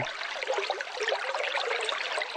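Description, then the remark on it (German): Steady, gentle trickling and splashing of water, a continuous bright babbling with no pauses, fairly soft. No voices are present. “Das könnte jetzt das Geplätscher sein, das ich mir bei unserem Irgendwasser vorstelle, wie er mal irgendwann angefangen hat zu plätschern.”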